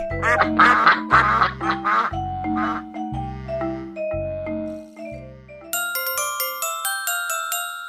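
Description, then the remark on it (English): A duck quacks loudly about half a dozen times in a quick, steady rhythm, then bright bell-like chiming tones take over and ring out to the end. No one speaks. “Ducks quack, quack, quack.”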